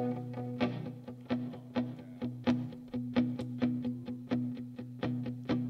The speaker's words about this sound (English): So this is what it sounds like when you take alt country and blend it with new country in Nashville, Tennessee